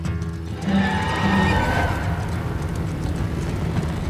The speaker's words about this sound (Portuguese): Quanto mais se aproximava, mas a coisa emitiu um longo relincho nefasto que me remetia à lamúria dos condenados à fogueira.